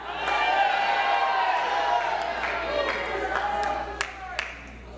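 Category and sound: crowd, audience shouting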